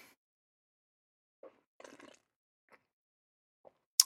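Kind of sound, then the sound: food or drink, sipping coffee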